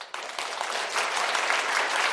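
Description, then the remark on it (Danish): A burst of applause sound effect added in post-production: dense, steady clapping from many hands that starts abruptly and holds at an even, fairly loud level for about two seconds, with no voices. “Jeg, vil, jeg har en klapsalve, jeg lægger på i posten.”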